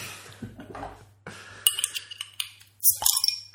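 A chilled drink bottle is opened: a few sharp glassy clinks and rattles, then a brief bright hiss as the cap comes off, with a low steady hum underneath and no talking.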